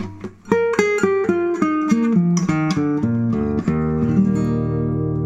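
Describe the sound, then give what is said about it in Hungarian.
An electric guitar played through an amplifier of the kind used at concerts, picking a quick descending run of about a dozen bright, ringing notes that ends on a long sustained tone, loud with no talking. “És most már az elektronikán keresztül egy erősítőn hallhatjuk ugyanennek a hangszernek a hangját.”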